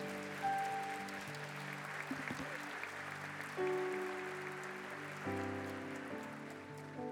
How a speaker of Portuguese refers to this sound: Todos podem aplaudir o Rei Jesus nessa noite.